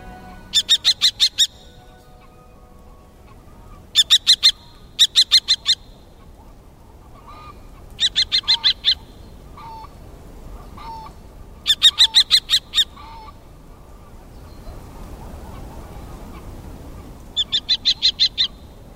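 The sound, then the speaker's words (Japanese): A common kestrel, a small falcon, hovering over the reedbeds of Japan's largest flood-retention basin around Yanaka Lake on a sunny autumn afternoon, gives sharp, high kee-kee-kee calls in quick bursts of several notes, repeated about seven times with short pauses, over a low, steady outdoor rumble. “キキキと高く鋭い声長原棒ですハヤブサの仲間で全長はオスがおよそ30センチメスの方が大きくて40センチと鳩くらいの大きさです”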